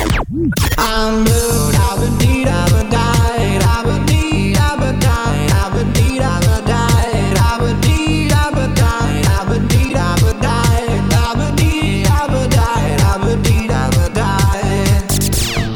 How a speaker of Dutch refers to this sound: En de eerste hit die ze hebben aangepakt heet …. En de originele versie klinkt zo.